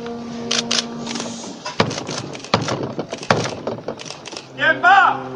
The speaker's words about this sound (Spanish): Bueno, pues con estos tres golpes, con el chirriar de la puerta y con el aplauso del pueblo de Jaén, se da comienzo a la Semana Santa.